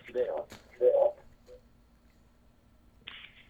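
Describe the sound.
A broadcast echoes back through a caller's radio receiver: muffled, garbled voice bursts over a phone line, with a faint steady hum beneath and short gaps between the fragments.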